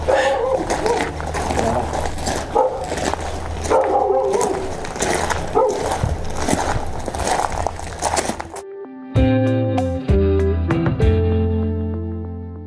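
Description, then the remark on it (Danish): A dog barks repeatedly amid a busy, noisy scene with people talking, then the sound cuts abruptly to a short bright musical passage. “Der er også hunden.”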